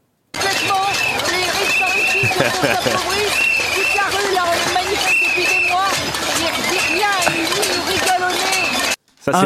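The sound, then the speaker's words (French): Several loud, sustained whistle blasts from a man blowing hard on a whistle over a dense, chaotic street crowd at a pots-and-pans protest, with shouting voices and clattering noise throughout. “Un euh, témoignage euh, parlant, mais peu audible, hein, notamment dû à cet homme très heureux de souffler fort dans son sifflet.”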